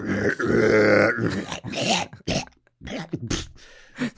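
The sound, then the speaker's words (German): A person imitates fathers hawking up phlegm and spitting into the washbasin in the morning: a long, rough, gurgling throat-clearing grunt, then several short, sharp spitting bursts, with brief pauses between. “Ich weiß nicht, also die flatschen die unsere, unsere Vaters, äh, Väter morgens in die, in, ins Waschbecken reinballern, die sind wichtige Themen.”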